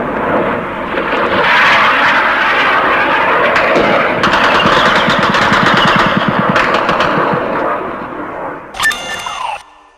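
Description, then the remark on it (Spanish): Intense anti-aircraft gunfire from shore batteries crackles in rapid, continuous bursts over a droning aircraft engine during an air attack on a bay, where an Argentine merchant ship is among the targets; loud, with a brief high whine near the end. “Ahora el tiroteo es mucho más intenso y se ve que además otro de los blancos es el mercante argentino que está en la bahía contestan nuestras baterías antiaéreas y se ve el refulgir de sus disparos en el aire.”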